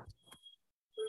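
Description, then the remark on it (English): Two short electronic beeps with a steady high tone, separated by a brief pause, fairly loud: a home fire alarm chirping. “Excuse me, that's my fire alarm.”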